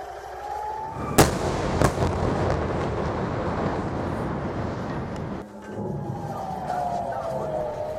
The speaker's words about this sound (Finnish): Gaasasta ammuttu raketti osuu rakennukseen lähellä Tel Avivia Israelissa.